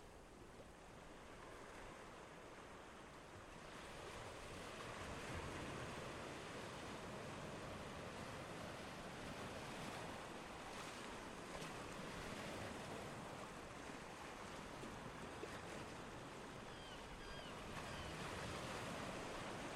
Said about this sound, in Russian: Почувствуйте глубокое расслабление и слушайте безмятежную музыку уходящего прилива.